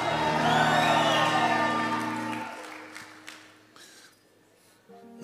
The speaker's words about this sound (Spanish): ¿Podían aplaudir antes que yo me vaya al cielo? Un grito de victoria, aleluya.